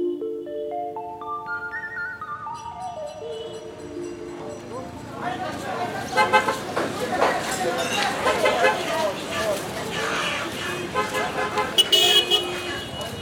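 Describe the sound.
Busy street traffic in the historic centre of Cairo, Egypt, on a very hot day, with a steady roar and repeated car horn toots, opening with a run of rising horn-like tones before the dense street noise and indistinct voices swell in.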